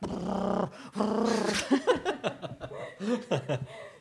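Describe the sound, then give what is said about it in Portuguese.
A person imitates the purring of a cat with two drawn-out, raspy voiced rumbles, followed by chuckling and brief, breathy vocal sounds. “mãe, eh, se esse é o barulho dos gatos.”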